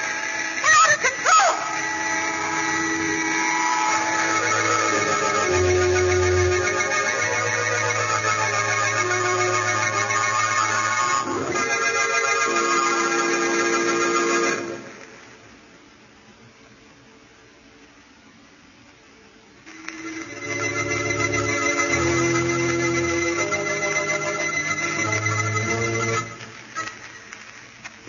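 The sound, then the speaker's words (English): A small cabin plane, shot down with its pilot dead, dives out of control toward the ground, its engine roaring in a steady, harmonic drone with pitch shifting in steps; the roar drops away for a few seconds, then surges back. “The pilot dead, the plane out of control is zooming toward the ground.”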